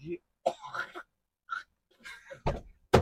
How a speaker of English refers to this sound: And someone is coughing.